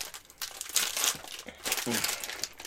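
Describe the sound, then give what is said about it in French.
Crackling crinkles of a plastic snack package being handled and opened, coming in irregular bursts over a few seconds with brief pauses between them. “Rice Krispies! Mais c'est pas du Rice Krispies, on s'entend.”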